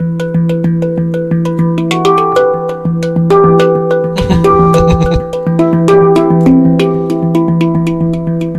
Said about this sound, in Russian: помимо вот авторской музыки и этнической, мы, допустим, играем а, классическую музыку на ханге. И Звучит примерно так.